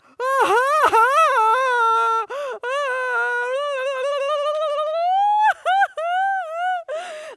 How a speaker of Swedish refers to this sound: Och så vi sa, vi började gråta.